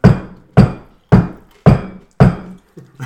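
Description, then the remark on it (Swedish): Five firm, evenly spaced knocks on a door, loud, each a dull wooden thud with a short decay, followed by a faint softer sound at the end. “Knackar på dörren.”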